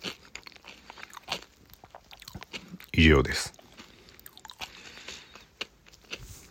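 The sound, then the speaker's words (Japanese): A single loud, sharp crunch of someone biting into a rice cracker (senbei), with fainter chewing crackles and quiet speech before and after it. “せんべい食っててもいいんだよ。”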